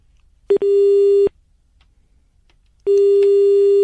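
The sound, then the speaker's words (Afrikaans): A telephone line tone after a dropped call: a steady, loud, mid-pitched buzzing beep lasting under a second, a pause of silence, then the same tone starting again. No one speaks. “Nee, lyk like my ons het 'n paar oproepe verloor hierso.”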